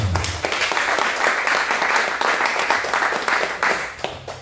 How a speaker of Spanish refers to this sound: A su nombre. A su nombre. Palmas a Jesucristo.